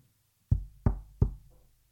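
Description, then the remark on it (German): Three firm knocks on the wooden door of an inn, evenly spaced, each with a short hollow resonance, in an otherwise quiet space. “Ich sorge mal dafür, dass wir ein Zimmer bekommen, sagt er und klopft an.”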